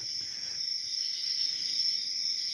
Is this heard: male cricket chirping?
yes